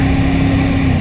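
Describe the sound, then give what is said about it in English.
The Cummins V8 turbo diesel engine of a Nissan Titan XD pickup truck drones loudly and steadily, heard with the window open: a low rumbling hum with a constant pitch that holds evenly throughout, with no voices. “And this is you opening the window for some real music from that Cummins diesel.”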